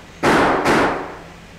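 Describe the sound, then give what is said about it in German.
Two loud pistol shots about half a second apart, fired at a door lock to shoot it open, each a sharp crack followed by a brief ringing decay, with no voices. “Ich schieße das Schloss kaputt.”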